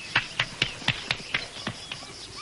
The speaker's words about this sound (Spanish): Chita aplaude.